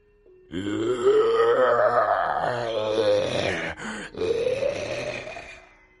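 A loud, guttural low growl rumbles from the throat of a werewolf monster as it warily looks in another direction. It lasts about five seconds, rising slightly in pitch, with a brief catch partway through before it resumes and fades. No talking.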